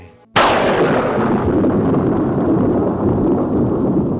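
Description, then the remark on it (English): A single sudden, loud thunderclap of a lightning strike cracks in, then rolls into a heavy, sustained rumble that barely fades over the next few seconds. No voices are heard. “Throw the switches, wait for the lightning.”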